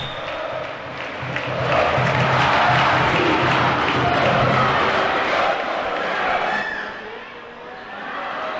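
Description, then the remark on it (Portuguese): Basketball fans in an arena chant together during a São Paulo game as a player goes to the free-throw line, a loud, dense roar of many voices that swells through the middle, then eases slightly near the end. “A torcida vai junto. Ouça no microfone da Para Esportiva.”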